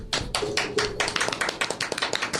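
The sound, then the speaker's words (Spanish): Hand clapping, a quick run of sharp, bright claps in an uneven rhythm, steady in loudness for a couple of seconds with no voices. “Sí, bravo por los Méxicos, por favor. Aplaude, cabrón.”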